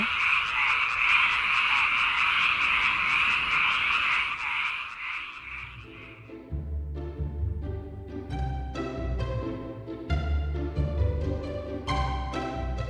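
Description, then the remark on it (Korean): A dense chorus of frogs croaks steadily for several seconds on Gyeongchip, the early-spring day when frogs wake from hibernation, loud and continuous, before fading out as instrumental music with a bass line takes over for the rest. “경칩날 개구리 소리 오늘의 소리로 만나봤습니다”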